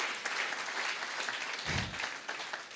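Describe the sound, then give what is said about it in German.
An audience claps steadily for performers who acted out a scene, a dense, even wash of many hands with no talking over it, plus a brief low thump partway through. “Gebt doch mal einen riesen Klatschopfer für die, die haben das super gespielt.”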